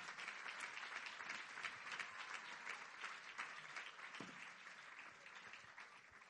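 A crowd claps steadily and loudly throughout as applause to the Lord, a dense wash of many hands applauding together, sustained without pause for several seconds.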